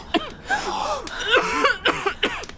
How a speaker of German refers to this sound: Hey, warum hustest du so? Ja. Ich? Keine Ahnung. Ich weiss gerade auch nicht, wo ich mir das aufgelesen habe.